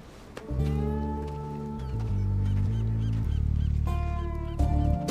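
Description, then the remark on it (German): A large black truck's horn blares in long, continuous blasts, its brassy tone jumping between several pitches in quick succession for about five seconds, with no voices. “Dieser Truck. Der taucht immer wieder auf.”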